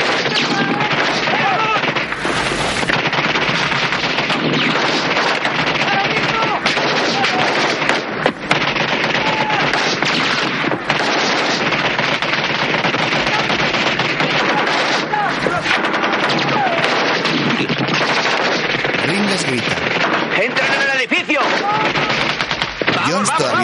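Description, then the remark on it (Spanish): Sustained, loud gunfire fills the scene, with rapid automatic bursts and scattered shots overlapping continuously as enemies fire and a soldier throws a smoke bomb and shoots back, with voices shouting faintly beneath the clatter. “Mientras los enemigos disparan, Highway, que se ha quedado atrás, aprovecha para lanzar una bomba de humo y Les dispara”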